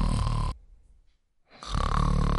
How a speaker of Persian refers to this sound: صدای خوروپف آهنگ مخصوصی پیدا می کند.